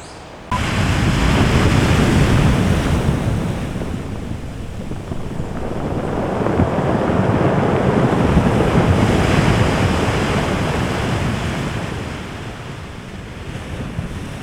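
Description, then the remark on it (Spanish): Heavy storm surf crashes continuously against rocks along the coast during a storm, a deep roaring wash of waves swelling and receding, with gusty wind buffeting the microphone and no voices. “Grabé también el sonido del mar durante esta tormenta golpeando contra las rocas del borde costero que hacían un sonido profundo, increíble.”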